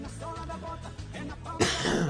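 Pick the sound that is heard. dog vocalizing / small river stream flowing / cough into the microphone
cough into the microphone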